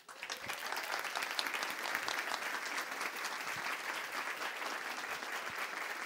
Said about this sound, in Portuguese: Chamamos agora, sem mais, o convidado da noite. Vamos receber com um aplauso que merece.